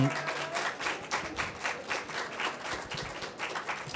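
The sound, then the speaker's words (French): An audience applauds steadily, welcoming an audience member onto the stage, many hands clapping in a dense, continuous patter with rhythmic swells, moderately loud throughout, with faint voices murmuring underneath. “On peut l'applaudir, mesdames et messieurs”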